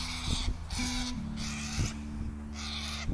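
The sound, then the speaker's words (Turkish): A white parrot perched on its swing screeches loudly in a run of harsh, raspy bursts, about four in quick succession, over a steady low hum. “Niye bağırıyorsa bu papağan da beyaz papağan. Şeye çıkmış salıncağın üzerine çıkır çıkır bağırıyor.”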